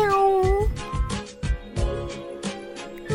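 A single drawn-out meow with a bending, mid-high pitch opens the sound, then gives way to steady rhythmic beats and tonal music that continue to the end.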